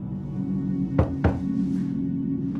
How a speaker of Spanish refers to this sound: toca la puerta.